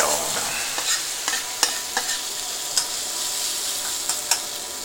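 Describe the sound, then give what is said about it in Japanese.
Steady sizzling of back fat in a hot pan while food is stir-fried with flames leaping, Chinese-restaurant style, punctuated by a series of irregular sharp clinks and scrapes from a spatula or utensil against the pan. “背脂に炎がこう飛んであれですよあの中華料理屋みたいな感じになってるよ”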